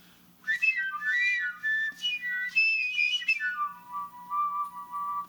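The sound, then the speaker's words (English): A simple homemade whistle instrument plays a string of floating, bird-like tones, gliding and warbling between pitches before settling on a long steady low note. It is clear, with no voices. “And one of the things I like about this, the tone by itself is a pretty simple whistle and not all that interesting, but it loves uh, certain kind of musical gestures, to use that word again.”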